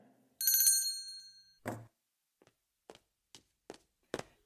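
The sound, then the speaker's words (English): A small hand bell, rung to summon a servant, gives a single bright ring that shimmers and fades, followed by a dull thud and a few steady footsteps approaching. “You rang”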